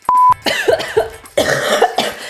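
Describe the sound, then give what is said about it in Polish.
A short beep, then a loud run of harsh coughs and snorting nose blowing in quick, uneven bursts, with no talking. “Czas na kaszlu, kaszlu i smarku, smarku.”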